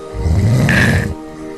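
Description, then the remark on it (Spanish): A single loud, rasping snore, a deep rattling inhale lasting about a second before trailing off into quiet breathing noise. No one speaks. “Lo de los ronquidos era una broma, ¿o no?”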